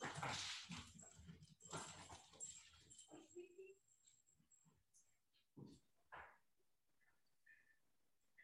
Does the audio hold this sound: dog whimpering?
yes